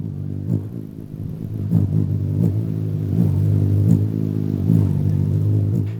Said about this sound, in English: I recorded hummingbird wings